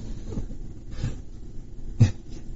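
A pug lying down snores, with three soft, snuffly breaths rasping at an uneven pace. The last breath is a slightly louder snort, and nobody speaks.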